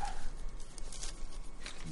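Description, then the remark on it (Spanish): Dogs bark, a few short, sharp barks spaced irregularly over a faint background hum, with no one talking. “¡Esos perros, por favor! ¡Callaos!”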